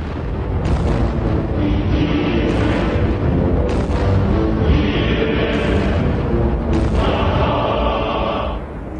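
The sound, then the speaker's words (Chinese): Heavy artillery bombardment by Soviet guns on Japanese troops who had just taken Bayan Tsagaan hill by the Halha River, a dense, continuous low rumble punctuated by several loud, sharp blasts every second or two, with no voices throughout. “刚刚攻下巴音察山的日军，还没有来得及喘口气，就遭到猛烈炮击，寸步难行。”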